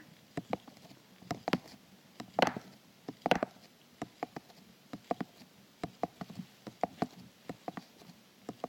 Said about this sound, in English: correct and it's on the right side yes correct it was a cup and it was water correct